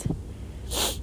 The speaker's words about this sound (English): I'm sorry if you guys can hear the wind blowing, but I like, you know, the fact that you guys can hear the nature in the background.